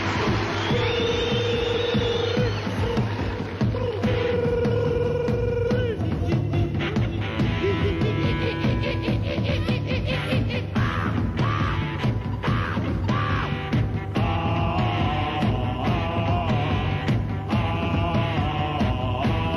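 Raw, loud early punk rock recording with driving distorted guitars, pounding drums and a shouted, sneering male vocal, dense and constant throughout.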